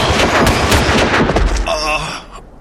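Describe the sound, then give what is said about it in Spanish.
A loud volley of rifle fire from the front row of a firing squad executing a man, many shots cracking almost together in a ragged burst, then a brief high ringing tone before the sound cuts off. “¡Preparen! ¡Apunten! ¡Fuego!”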